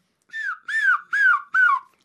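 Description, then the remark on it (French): A person imitates a herring gull on the RFI environment radio magazine C'est pas du vent, giving four loud yelping calls in quick succession, each rising briefly then sliding downward, with short gaps between them. “Donc, le goéland argenté, c'est vous”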